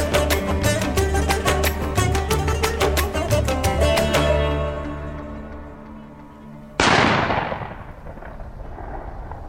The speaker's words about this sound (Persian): صدای شلی تو سکوت و تاریکی شب تو دل کوهستون مثل رد پیچید